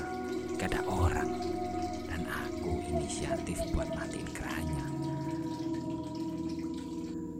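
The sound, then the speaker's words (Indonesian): A tap runs in an empty bathroom, a continuous rushing stream of water with a low hum underneath, lasting the whole time at moderate volume with no clear break. “Eh, sebelum selesai bikin, aku dengar suara keran nyala dari kamar mandi.”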